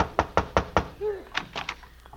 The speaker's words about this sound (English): Well, Costello, here's the first place that advertised for a babysitter. Go ahead, knock on the door.